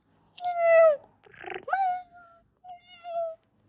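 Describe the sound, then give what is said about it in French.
A cat waiting in the hay of a barn for its milk meows three times, drawn-out, falling cries with brief pauses between them and a short, rough, breathy sound after the first. “C'est là où vit le chat qui attend dans le foin car il veut son lait que lui donne le lutin.”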